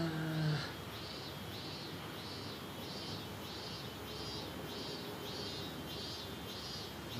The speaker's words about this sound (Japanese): 今回の収録はこうセミの声を聞きながら そうです ちょっとこう環境音的な感じ 無音多めな夏の肘折の音をお楽しみください